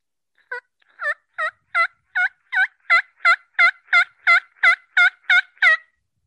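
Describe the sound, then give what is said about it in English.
A hunter's call imitates a turkey with a run of about fourteen sharp, evenly spaced yelps that grow slightly louder and steadier, clear with no talking; calling used when the birds fly down. “when the birds fly down, uh, I don't like to go into like this”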